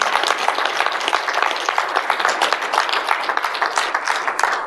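An audience applauds steadily for several seconds, many hands clapping in a dense, crackling wash that stays fairly loud throughout with no voices over it.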